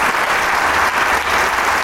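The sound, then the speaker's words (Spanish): Sustained applause from a concert audience for the Camerata de Coahuila at the Teatro Isauro Martínez, a dense, steady wash of many hands clapping at once, loud and continuous with no voices standing out. “La gente no se, cansa de aplaudir a esta su camarata de Coahuila aquí en el Teatro Isauro Martínez.”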